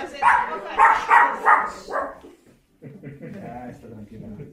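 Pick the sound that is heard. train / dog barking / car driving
dog barking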